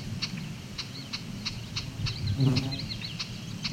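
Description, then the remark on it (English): A common yellowthroat sings a steady, rhythmic run of bright, high chirping phrases over a low outdoor rumble, with a few other warbling bird notes briefly joining in. “Yellow throat.”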